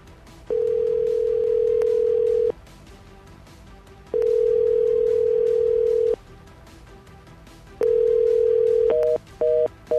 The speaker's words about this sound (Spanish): Y así una y otra y otra vez. Nadie contesta o la línea está colapsada, saturada.